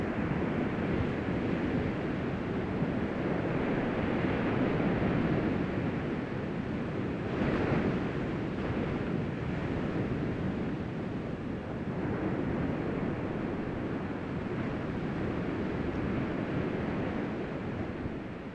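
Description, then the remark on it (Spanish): Ocean waves break and wash in a steady, full roar of surf, with a broad rushing hiss that swells slightly around a few surges, continuous and loud with no voices. “Ahora coloca tu cuerpo en una postura relajada, sin puntos de tensión, mientras escuchas el sonido del poder natural de las olas del mar.”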